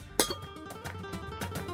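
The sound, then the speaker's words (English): Glasses clink together in a toast to Prosecco: one sharp, bright chime that rings on, followed by a couple of softer taps, with no talking. “Thumbs up to Prosecco. Yes. Excellent. Definitely. Cheers. Cheers. Cheers.”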